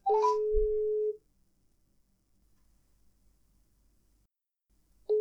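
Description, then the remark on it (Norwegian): A phone line rings out after a randomly chosen phone number is dialed: a steady, fairly loud ringback tone lasts about a second, then a long silent gap before the next tone starts. No one speaks. “Det ringer.”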